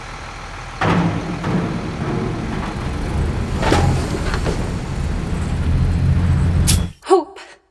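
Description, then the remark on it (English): A large bus engine rumbles steadily as the vehicle pulls away, with sharp hissing bursts of air brakes cutting through the drone, before the sound stops abruptly. “You sure this is the right bus for you, kid?”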